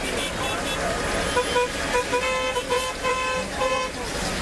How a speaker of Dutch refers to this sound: Ja, zo ongeveer klinkt het verkeer in de Marokkaanse stad Casablanca. Tussen al dat getoeter door reden tot voor kort ook nog boerenkarren met paarden ervoor.